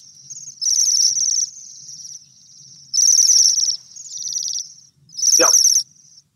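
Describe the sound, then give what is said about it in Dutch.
A bell-like bird call: three loud bursts of high, tinkling, rapidly pulsed notes, with a softer ringing trill continuing between them and a quick downward-swooping note at the end. No one speaks. “Het is een soort belletje wat je hoort.”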